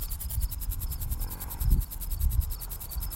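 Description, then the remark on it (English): Crickets chirp in a dense, steady pulsing chorus across a field, high and continuous, with a soft low rumble swelling faintly in the background. “Well, these crickets are noisy too, but for some reason it's not like an annoying sound.”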